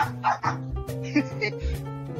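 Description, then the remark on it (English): A dog named Buster barks a few times in short, sharp bursts, loud, over a steady tonal background hum. “Me and my dog Buster really love listening to Israel News Talk Radio.”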